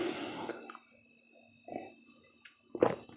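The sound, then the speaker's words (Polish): A sip of tea: a soft slurp at the start, then a couple of quiet wet swallowing and breathing sounds over a faint steady hum, with no talking. “to był łyk herbaty.”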